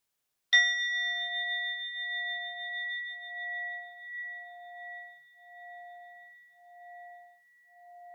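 A single meditation bell is struck once, a clear bright strike followed by a long, pure ringing tone that slowly beats and fades over several seconds in an otherwise silent space.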